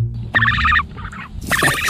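A bird gives loud, rough, rapid gobbling calls in two bursts, the second harsher and noisier, with a brief pause between them and no talking.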